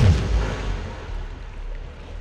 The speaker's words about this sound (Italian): La notte è avvolta nella nebbia, esplosioni rimbombano.